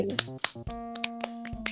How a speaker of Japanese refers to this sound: いいね、これ拍手とかもちゃんとね、あの 音声として入るからね。